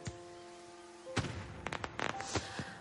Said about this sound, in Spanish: Sonríe al ver destellos de fuegos artificiales en la calle.